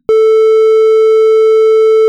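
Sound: censorship beep tone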